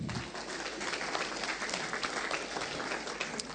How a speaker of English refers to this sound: Thank you, Andrew. Let's give Andrew a hand.